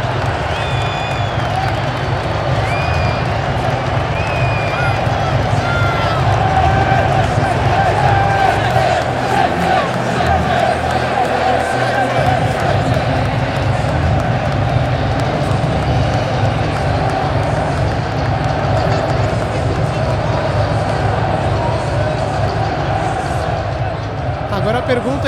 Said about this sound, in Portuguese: Olha os times entrando em campo aí. Sente o clima da torcida com os times entrando.